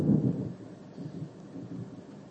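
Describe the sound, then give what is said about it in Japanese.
A low rumble of thunder right after a flash of lightning, strongest at the very start and then rolling on in softer waves, with no voices over it. “なったな、雷。”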